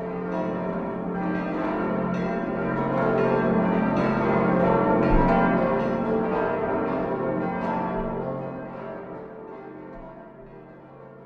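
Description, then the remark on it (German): Church bells ring together in a dense, continuous peal for a festive confirmation service attended by the bishop, their overlapping strikes blending into a rich, sustained wash that swells slightly in the middle and fades toward the end. “da läuten die Glocken, aber hey, wie kräftig läuten die dann zum Fest, wenn der Bischof kommt.”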